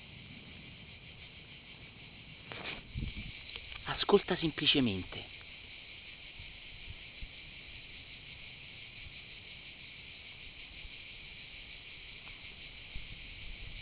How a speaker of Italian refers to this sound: ascolta il canto delle cicale, ascolta il vento nei pini